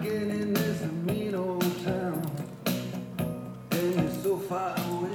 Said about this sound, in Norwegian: Så nå hører vi på en CD gjennom CD-rommen til Amigaen. Her er en følelse jeg liker.